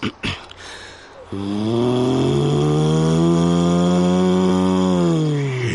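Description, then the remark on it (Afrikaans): A person vocally imitates a Porsche 911 GT3 sports car engine: after a few short clicks, a sustained, buzzing engine drone with rich harmonics holds steady for about four seconds, then trails off slightly. “Wat ek glo die meeste geïrriteerd het is wanneer ek die karre namaak.”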